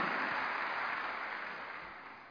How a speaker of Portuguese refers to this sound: Está aplaudindo? Não, vocês estão, vocês estão me aplaudindo, né?